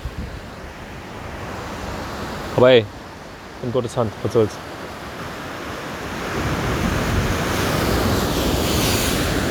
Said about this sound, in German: Es ist der Ozean mit seiner gewaltigen Kraft. So viel Wasser.